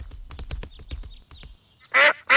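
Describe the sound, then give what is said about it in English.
Ducks in the Peppa Pig cartoon quack in a quick, busy cluster of short calls with splashy low rumbles beneath, then two loud, harsh quacks ring out at the end; the ducks have been fed bread and want more food. “ducks want more food.”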